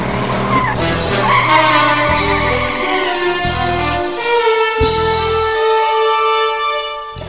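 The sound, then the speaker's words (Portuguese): A DB5 sports car pulls away with loud, sustained tire squeal and skidding, the engine revving in rising bursts throughout the roughly seven seconds, continuous with no talking. “então entra nesse DB5 aqui e vamos embora.”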